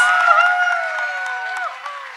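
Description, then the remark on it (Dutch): An audience applauds steadily to welcome a speaker to the stage, a dense wash of clapping with some cheering voices and a whistle-like tone riding over it, holding fairly loud for about two seconds. “Kom on, geef hem een applaus.”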